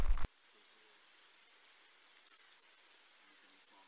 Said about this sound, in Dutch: Wat de meest bijzondere vogel was die we vandaag gezien hebben, was het, of gehoord eigenlijk hebben, dat was het bladkoninkje